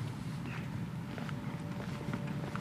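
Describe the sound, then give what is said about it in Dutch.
Three people walk steadily outdoors in Utrecht, from the Utrecht archive to Ingenhoutstraat in Tuindorp, their overlapping soft footsteps over a constant low street rumble, moderately loud, with no one speaking. “Omdat dat maar 10 minuten wandelen is van het Utrechtse archief, lopen we met z'n drieën naartoe.”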